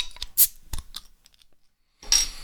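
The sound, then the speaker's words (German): A bottle of cloudy bock beer with 7.2% alcohol being opened: a few sharp metallic clicks and clinks, a short pause, then a loud, bright hiss of escaping gas. No one speaks. “Und ich würde sagen, ich will euch nicht zu lang auf die Folter spannen und ich mache einmal das Flaschel auf.”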